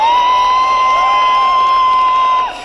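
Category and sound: crowd, crowd cheering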